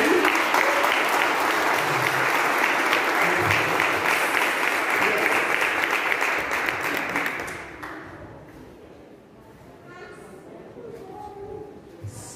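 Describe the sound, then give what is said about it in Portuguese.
A church audience claps steadily and loudly for about eight seconds at the close of a service, a dense wash of applause that fades out, leaving quieter background sound with faint voices and a brief tone. “Vamos aplaudir”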